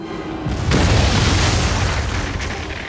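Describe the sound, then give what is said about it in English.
A deep, heavy boom of a ship's cannon broadside erupts and rolls on, a thick low rumble filling the space like cannon fire. The blast starts after a brief lull, then sustains as a roaring, thunderous wash. “The Dutchman gave us her broadside, as the infernal cannons blazed, our hull split down the middle with a sound like thunder.”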